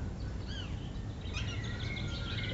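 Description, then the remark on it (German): Birds chirp and twitter in a theater's garden, with a few rising whistled calls followed by a busier burst of overlapping tweets over a low rumbling background. “Das ist um der mal, große ähm, Mixed dem Zuhörer vielleicht dieses Vogelgezwitscher zu erklären.”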